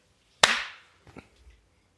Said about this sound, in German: Also, willst du das mit dem Klatschen nochmal machen? In deiner ja, lass mal trotzdem aus Sicherheitsgründen nochmal klatschen.